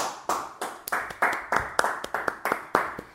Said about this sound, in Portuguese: Palmas, por favor.